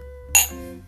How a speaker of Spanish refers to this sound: Brindis, brindis. sí, ¿no? Para, como para agarrar valor.